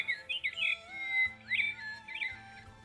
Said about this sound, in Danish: Nej, vi har jo stadig den bedste fugl. Åh oh, ja, ja og så må den kunstige fugl synge endnu en gang, og endnu en gang, og endnu en gang.